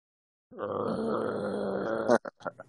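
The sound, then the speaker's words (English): A person makes a low, rough, sustained growl for about a second and a half, imitating their dog growling at a man it dislikes, followed by a few short breathy bursts like laughter. “He doesn't growl at anyone. As soon as he sees him like walking out and like around his car out there”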